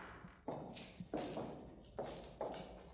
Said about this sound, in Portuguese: Vocês escutam os passos de dois soldados caminhando pelo corredor. Eles abrem as portas batendo nelas com bastante violência.